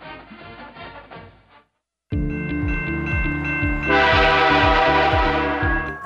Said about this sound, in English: Texting, talking on your phone, or listening to music near train crossings or on platforms are big distractions. You need to see and hear the train coming.